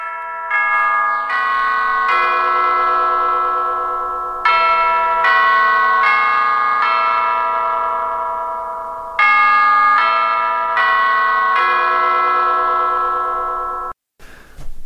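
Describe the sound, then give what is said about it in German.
Big Ben's clock tower chimes in London, played back on a mobile phone, ring out in repeated four-note phrases, each loud bell strike sustaining and overlapping the next into a resonant wash, with no talking over them. “Der Big Ben hat einen ganz bestimmten Klang und ich spiele die hier jetzt mal mit meinem Handy ab, dass du ihn hörst.”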